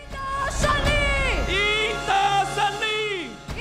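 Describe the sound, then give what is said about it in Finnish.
A huge crowd, mostly young Taiwanese, celebrates an election victory on a Saturday night in central Taipei, Taiwan, shouting support for President Tsai Ing-wen in front of the DPP headquarters: loud continuous cheering, sustained chanting and shouting in long drawn-out tones rising and falling in pitch, plus scattered sharp whoops. “Viikko sitten lauantai-yönä Taipeen keskustassa raikui vaalivoittajien riemu.”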